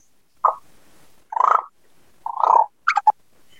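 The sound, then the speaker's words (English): A person imitates a purring sound by fluttering their lips, producing three short, buzzy bursts with pauses between, followed by a couple of quick higher-pitched flutters. Fairly loud, with no talking. “There's a few different ways to purr, guys. Using your lips is not the way to do it.”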